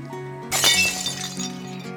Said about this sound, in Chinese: 紧接着。杯子从我手中滑落，因为我在杯子旁边的镜子里看见了自己的鬼样子